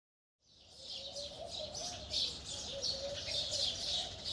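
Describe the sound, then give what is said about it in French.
Several birds sing and chirp continuously at dawn, a busy overlapping chorus of bright high twitters with a lower steady call running beneath, heard outdoors with no talking. “Ce n'est pas la musique, mais le chant des oiseaux qui me réveille.”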